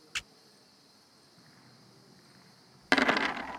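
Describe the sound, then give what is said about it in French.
A single sharp click, then a pause before a loud clatter of twelve dice rattling and tumbling across a hard surface, continuing to the end over a faint steady hum. “T'as jeté combien de dés là T'en as jeté 12”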